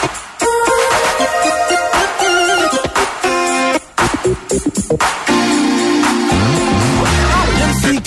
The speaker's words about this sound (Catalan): Doncs això, una cançó que segur que us sonarà és el track número 7 d'aquest recopilatori que estem buscant